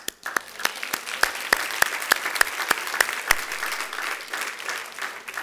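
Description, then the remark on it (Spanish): An audience breaks into applause for themselves for coming together, a dense wash of clapping with a few sharp, louder claps standing out in a steady rhythm throughout, sustained for several seconds without any talking. “Podemos darle un aplauso a todos nosotros que nos pusimos de acuerdo para llegar todos juntos.”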